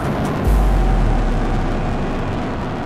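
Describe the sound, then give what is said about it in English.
A deep, loud rumbling roar swells suddenly and holds steady, a dense low-frequency blast of a rocket launching at Cape Canaveral, with a broad crackling hiss riding over it. “And an unbelievable noise as the rumbling turns into a roar.”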